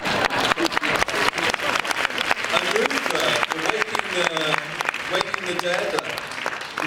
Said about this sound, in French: Allez, quelques derniers applaudissements, s'il vous plaît.